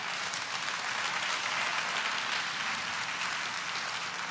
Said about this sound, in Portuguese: Então aplauda o Senhor bem forte.